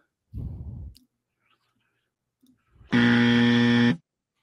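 A quiz buzzer in a movie-guessing game sounds once, a loud, steady, harsh electronic tone lasting about a second. A brief muffled low rumble comes earlier, with a short quiet gap between.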